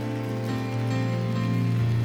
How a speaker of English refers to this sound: Can somebody clap over here as well? Yeah.